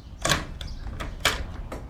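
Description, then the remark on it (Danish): A door is eased open just a crack, giving a handful of sharp clicks and rattles spaced unevenly over two seconds, over a low background rumble. “Åbn døren!”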